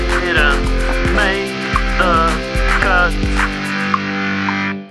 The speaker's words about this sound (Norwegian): Elsker den jingeren. Ja, den Elsker den jingeren. Den er jævla fin. Begynner du å vokse på deg, den? Ja, jeg elsker den. Så jeg må laste den opp på telefonen min, så jeg kan høre på den på repeat.